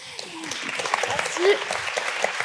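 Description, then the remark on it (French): An audience of 500 people applauds steadily for someone having watched the film Venom 1, a dense wash of many hands clapping at once, with a few voices calling out and murmuring through the clapping. “Je crois que c'est la première fois que quelqu'un est applaudi par 500 personnes pour avoir vu Venom 1.”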